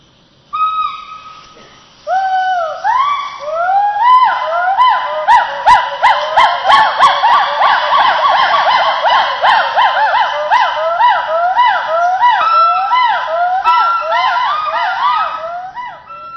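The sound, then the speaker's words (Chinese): Gibbons calling on Gaoligong Mountain, recorded in May: loud, repeated rising and swooping whoops from several overlapping voices, building into a steady, fast-pulsing chorus with no talking. “这个是今年五月份从高丽宫山上面录下来的声音。”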